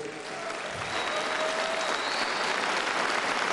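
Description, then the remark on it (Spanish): An audience bursts into steady, sustained applause for the aides, dense overlapping claps holding at a consistent loud level throughout, with no talking over it. “Tienen un aplauso para los de ayudantía.”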